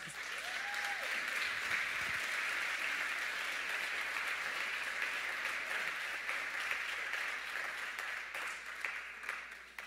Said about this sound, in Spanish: Dale un aplauso.